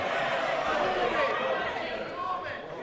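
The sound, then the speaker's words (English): Many members of parliament in the chamber shout and heckle over one another, forming a loud, continuous din with no single speaker standing out for the full few seconds. “the party of Peel and Churchill reduced to shouting and screaming in defence of this lawbreaker”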